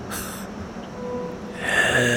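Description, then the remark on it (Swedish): A voice imitates the wheezing breathing of a throat damaged by the cold: a short breathy hiss, a pause, then a louder, strained inhale-like rasp with a thin whistling tone, fairly loud. “Du känner riktigt hur det gör ont i halsen av den här kölden väsande andning.”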